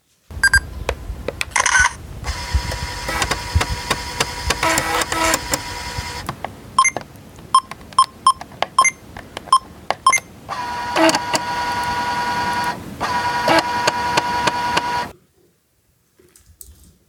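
A Sony Mavica MVC-FD91 floppy-disk digital camera whirs and clicks as it focuses and fires, with a series of sharp ticks and beeps, then its floppy drive grinds loudly while saving before falling silent.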